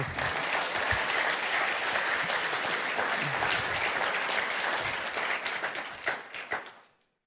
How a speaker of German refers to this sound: Und mein Opa hat heute Geburtstag, er ist 85. Lass uns ihm mal einen Applaus geben.